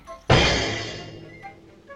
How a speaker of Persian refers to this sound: میشه روی کابینت با آشق زد به در, در قابلمه